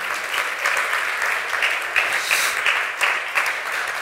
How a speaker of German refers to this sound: Gut, ihr dürft euch hinsetzen, ihr dürft während dem Hinsetzen der Lobpreisband klatschen für ihren Job, den sie heute getan haben.